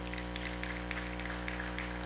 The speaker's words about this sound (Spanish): ¿No le da gracias al Señor? Dele un aplauso.